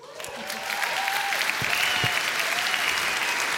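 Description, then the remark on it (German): Sustained audience applause for the boys, a dense wash of many hands clapping that swells quickly and holds steady and loud, with faint crowd voices and a few whistles mixed in. “Applaus für die Buben.”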